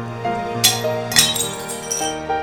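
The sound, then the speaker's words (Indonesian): A ceramic porridge bowl carried by a student crashes and shatters in a school canteen, with two sharp breaking impacts followed by scattered clinking pieces, fairly loud, over a steady background hum. “Mangkuk bubur yang dibawa oleh seorang siswa itu pecah.”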